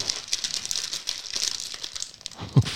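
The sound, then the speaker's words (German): Continuous crinkling of a silver foil snack bag being handled, pulled at and torn open, dense bright rustles throughout, ending with a sharper thump-like crackle near the end. No voices. “Ich glaube, das ist eine Perforation zum Öffnen, kann das sein? Das wäre aber mal interessant, wenn man sie waagerecht öffnen soll.”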